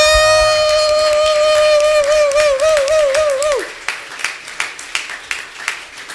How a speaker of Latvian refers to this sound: Jā, uh, vēl viens ļoti smieklīgs komiķis un vienīgais komiķis, kas uzstājies visos laivu izvaļā pasākumos. Un sagaidāmiem aplausiem Jāni Kreičmani.